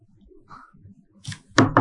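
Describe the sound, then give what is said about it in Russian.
After a soft, low murmur, a few sharp knocks ring out: one single rap, then two quick louder ones near the end, like knuckles hitting a door. “Стук в дверь.”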